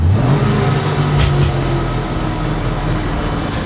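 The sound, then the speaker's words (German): A vintage car covered completely in postage stamps revs its engine loudly, its pitch climbing in a rising sweep at first before settling into a steady, rumbling idle with continuous mechanical whir. “Der Kult-Disco-Chef hat jetzt ein Kult-Auto, einen Oldtimer komplett mit Briefmarken zugeklebt.”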